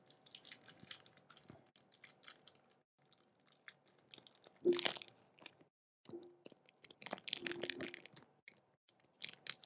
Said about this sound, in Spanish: Ahora, voy a hacer un poco de ASMR mientras me como un chocolate.